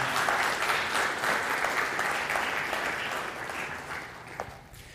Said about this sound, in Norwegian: Tusen takk. Gi deg en applaus, studentene.